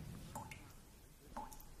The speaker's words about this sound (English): Only now did the glittering edges begin to soften and slide, and drip into the channel where the water flowed away from the washing of the dead.